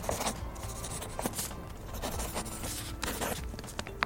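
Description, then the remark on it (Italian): A pen scratches steadily across paper, a continuous rustle of quick strokes with small pauses and taps, no voices present. “Ora prendete carta e penna e divertitevi a fare due calcoli approssimativi.”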